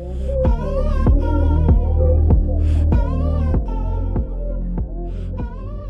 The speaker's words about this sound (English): Wow, wow, wow, wow. Do you know what that's called? It's called a sludge thunder bass. it actually has a name. It's called a Reese bass. Arespace is a synth bass sound that typically characterized as like a very low, seething, almost boiling